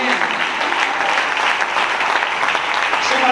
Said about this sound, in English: I wish everybody would stand your feet and clap your hands and say, We're getting out of here. We're getting out of here.